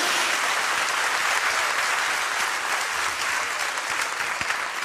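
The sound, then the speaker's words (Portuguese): A church audience applauds steadily in celebration of the Lord, a dense, continuous wash of many hands clapping at even loudness for several seconds, with no voices standing out. “Pode celebrar com a salva de palmas ao Senhor.”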